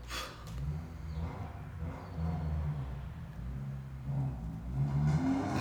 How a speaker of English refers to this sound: how'd you feel about this motorcycle?